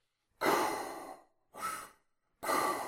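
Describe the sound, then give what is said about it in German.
A voice imitates heavy, mechanical mask breathing: three loud, airy breaths in a row, a long one followed by two shorter ones, hissing, with no talking. “Hört sich an wie das Asthma-Gerät, ja.”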